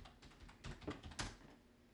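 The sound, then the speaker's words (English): Slow, irregular typing on a computer keyboard: a handful of soft key clicks with uneven gaps, one or two a little sharper than the rest, over a quiet background with no voices. “This episode's really gonna expose how slow I am at typing.”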